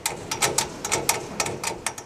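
The door of a silver, microwave-sized UV-light disinfection box for smartphones is shut and fastened with two turn screws, heard as a quick, uneven run of a dozen or so bright mechanical clicks and ratchets at moderate volume, with no voices.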